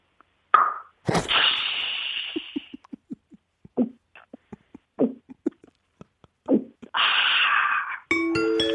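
A can of Coca-Cola cracks open with a sharp hiss that fizzes away, followed by a series of soft, rhythmic gulps, a breathy exhale, and a short, satisfied voiced 'kya' at the end.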